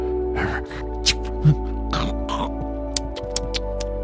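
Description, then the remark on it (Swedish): A voice mimics a hedgehog that has found something edible, with a string of short snuffling snorts, wet smacks and clicks, fairly quiet, spaced irregularly over a few seconds. “Ibland hörs också smackande och knakande ljud som visar att igelkotten har hittat något ätbart.”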